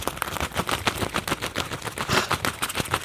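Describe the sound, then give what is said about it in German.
Rapid, fluttering flaps of soft material beating in quick irregular bursts, fairly loud, leathery like wings flapping, with no talking; four gloves tied together are flapped to imitate bats' wings. “vier Handschuhe, die ich aneinander gebunden habe”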